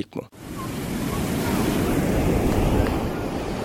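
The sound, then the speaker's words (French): Steady roar of surf washing onto Fidjrossè beach in Cotonou on Christmas Eve, with gusting wind buffeting the microphone, continuous and fairly loud after a brief dip at the start. “Les côtes de la plage de Fidjrosé, remplies de monde depuis hier et une foule de personnes, a commencé son réveillon à la plage de Cotonou.”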